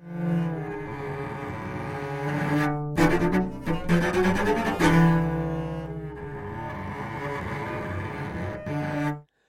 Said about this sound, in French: À l'opposé, à droite, le bruit blanc, la surpression des cordes.